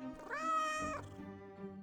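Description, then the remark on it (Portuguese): A cat clinging to a branch high in an avocado tree, unable to climb down, gives one long, drawn-out meow that rises and holds before trailing off into a softer, lower mew. It sounds clear, with no talking. “O que faz agarrado a esse galho no meu pé de abacateiro, gato?”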